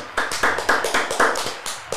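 Steady applause, quick evenly paced claps repeating about four times a second, bright and sharp, with no voices over them for the full two seconds.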